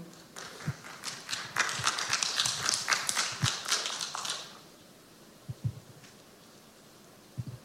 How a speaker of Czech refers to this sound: Zatleskejme mu.